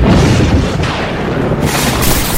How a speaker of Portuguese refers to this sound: Quando a pequenina começa a sorrir, um relâmpago rompe a concentração do momento ao atingir as costas de Pacífico